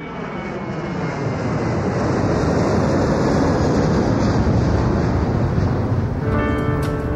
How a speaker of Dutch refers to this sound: Het is vrijdagavond, het vliegtuig is net opgestegen.